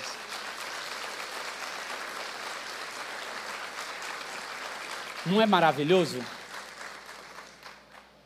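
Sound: audience applauding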